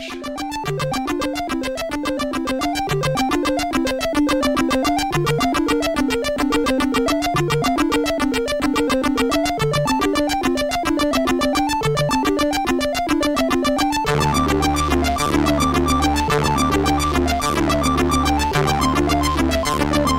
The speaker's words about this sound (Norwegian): spille litt musikk